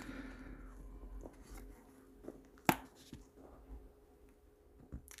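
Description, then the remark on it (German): A paper page being turned: a single crisp flick in the middle, surrounded by soft, faint rustling and handling noises, with no talking. “da muss ich jetzt hier mal umblättern,”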